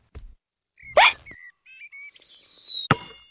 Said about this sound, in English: George's hiccups are spoiling the game